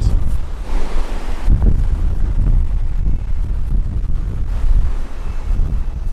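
Stormy wind roars outdoors under a steel-grey sky with sea spray in the air, a steady heavy rumble with gusts buffeting the microphone, loud and continuous throughout with no voices.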